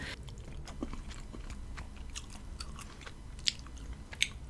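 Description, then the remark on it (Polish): Steady chewing and eating sounds of a woman eating pasta, with soft wet mouth noises and a couple of sharper clicks, continuing throughout without any talking. “No generalnie ona będzie jadła przez resztę filmiku.”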